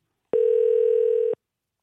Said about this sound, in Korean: 한번 전화 걸어보겠습니다.